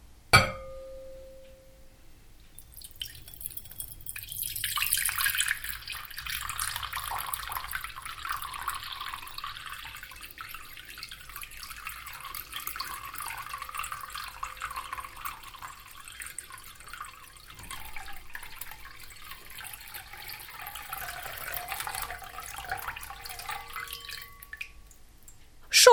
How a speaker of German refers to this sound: Und so klingt kaltes Wasser.